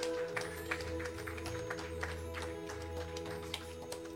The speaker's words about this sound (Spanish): aplauso al Señor esta noche. Gracias, Señor.